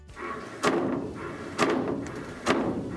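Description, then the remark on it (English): Water hammer in household plumbing: three sharp metallic bangs knock through the pipes at irregular intervals, each a loud percussive thud over a steady background hiss of running water. “So if you're hearing banging in your pipes that sounds like this,”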